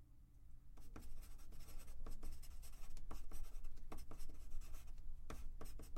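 A pen scratches steadily across paper in quick, irregular strokes, with sharper scribbles now and then over a low, constant hum. No one speaks.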